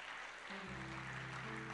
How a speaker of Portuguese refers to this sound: Você pode aplaudir o Senhor por isso e dizer glória a Deus.